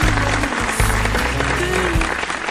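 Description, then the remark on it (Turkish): A burst of audience applause fills the space, dense and steady clapping from a crowd, with a low hum running underneath. “Alkışlar sana.”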